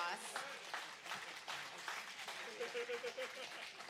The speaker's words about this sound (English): Can you two give them a round of applause?